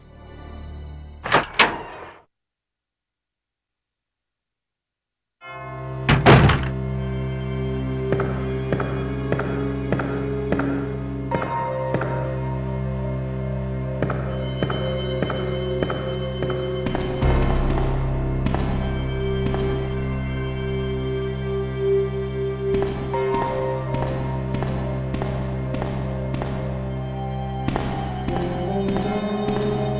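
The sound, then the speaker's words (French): A brief thud opens, then a few seconds of silence before moody video game police station background music settles in, a steady layered loop with soft pulsing beats, no voices. “Ouais, bah je propose qu'on écoute euh, dès maintenant euh, la musique du commissariat.”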